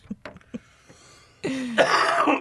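A few short, quiet throat sounds give way to a loud, harsh, raspy cough lasting about a second, with no talking.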